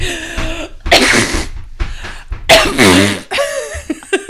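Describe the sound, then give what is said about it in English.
A person vocally imitates a cough blended with a fart, producing several loud, raspy bursts broken by short pauses and voiced, laugh-like sounds. “the old the old cough fart, the old cough fart”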